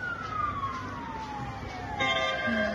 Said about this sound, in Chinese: 消防车鸣笛赶赴现场，警消也派出大批人员在雪堆和瓦砾堆下搜救。